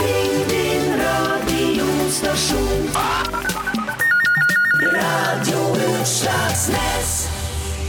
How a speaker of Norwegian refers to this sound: Ja da, ja, og den trudelutten der betyr jo selvfølgelig at vi åpner igjen for eh, lyttekontakt med dere som hører på.